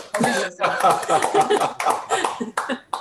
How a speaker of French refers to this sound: ça s'applaudit.